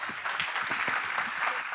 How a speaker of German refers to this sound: Kommt gerne schon zu mir auf die Bühne. Kräftigen Applaus bitte für Jojo und Fabi von Vegan Gesund mit Grund.